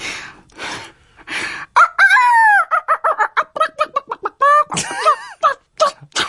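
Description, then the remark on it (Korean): A rooster crows in a long, drawn-out call amid a flurry of chicken clucks and short squawks from chicks and chickens in a coop in the corner of a yard at a grandmother's home in the countryside, with brief bursts of scratchy noise at the start. “그곳에는요 새끼 병아리랑 닭이 옹기종기 모여 있었죠.”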